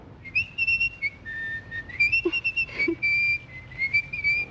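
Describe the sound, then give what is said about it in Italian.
Ugo Tognazzi, as a deaf-mute tailor in a film, whistles to communicate: a run of short, high, clear tones, sliding and stepping in pitch with brief pauses, like whistled phrases used to speak. No talking is heard. “da Ugo Tognazzi, che è un sarto bravissimo ma sordo muto, che quindi parla fischiando e a gesti.”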